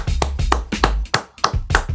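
Applause: a run of about seven sharp, crisp hand claps at a brisk, slightly uneven pace, fairly loud, with no voices.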